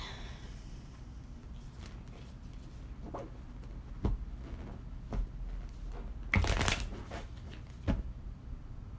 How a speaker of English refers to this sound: so the thing about um, sorry i'm still shuffling